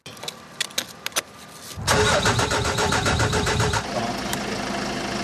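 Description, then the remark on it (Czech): A car engine struggles to start, cranking with a few sharp, uneven bursts before catching and turning over into a loud, steady idle. There is no talking. “Vy už můžete poznat, že auto hůř startuje, špatně otáčí motorem, dlouho žhaví.”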